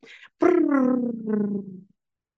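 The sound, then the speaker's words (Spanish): Feet shuffle outside with a brief breathy rustle, then a single long, low groan slowly sinks in pitch and fades out after about a second and a half, fairly loud. “Son pies que se arrastran y un gemido y algo que suena como a sangre que gotea.”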